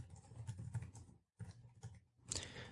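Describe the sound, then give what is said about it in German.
Brisk typing on a computer keyboard, typing in the word "Wiese": a rapid patter of key clicks broken by a short pause before resuming; no voices. “tippen ein Wiese, gehen also auf die mhm. Wiese.”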